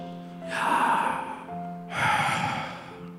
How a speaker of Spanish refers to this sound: El sonido que haces con cada respiración es el nombre de Dios una y otra vez.